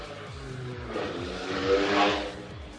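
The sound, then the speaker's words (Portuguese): A motorcycle engine revs through a quick series of rising gear shifts, swelling louder as it approaches and then easing off as it passes by. “A moto passou dentro da sua casa.”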